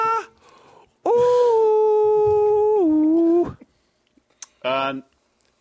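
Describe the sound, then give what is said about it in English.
A man's voice wails in a long, sustained, eerie tone that dips slightly in pitch before cutting off, followed by a short second moan, imitating ghostly backup vocals. “you are listening to the sounds of … doing his best impression of the backup vocals from the song”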